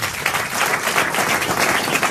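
An audience at a New Year's Eve show applauds steadily, a dense wash of many hands clapping at once at a fairly strong, even level for about two seconds, with no voices standing out.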